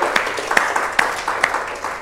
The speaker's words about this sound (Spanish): Yo creo que hay un aplauso fuerte a nuestro Dios que lo ha permitido.